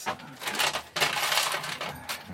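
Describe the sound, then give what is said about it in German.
Rummaging to fetch a ballpoint pen, small hard objects clattering and rattling against each other, a busy jangling search that continues steadily for a couple of seconds with no voices. “Dann hole ich mir gleich mal einen Stift.”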